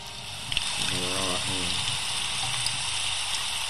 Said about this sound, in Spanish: me encanta dormir escuchando lluvia.